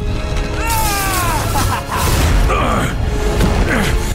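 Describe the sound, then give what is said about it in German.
A loud crystal explosion: a dense, roaring blast with bright, ringing tones sweeping downward, followed by a sustained rumbling burst that stays powerful for several seconds. “Die Explosion schleuderte sie alle durch die Luft.”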